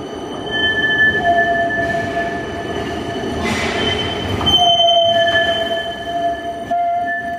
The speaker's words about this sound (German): Das ist der Klang, wenn das neue Tram durch die Kurve fährt. Nur ist das noch zu laut, darum wird geschrübelt dran, für dass es weniger geäusset und quietscht.